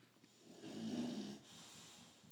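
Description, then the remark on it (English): A single drawn-out snore from an animal asleep on a dining room floor, a low rumbling inhale that swells and fades over about a second, followed by quiet breathing against a faint hiss. “She prefers just sleeping on the dining room floor.”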